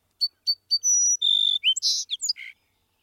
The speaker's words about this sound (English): If you visit one field with a few song sparrows, they often sound more like each other than a group of song sparrows living a few miles away. Scientists refer to this pattern as a song neighborhood.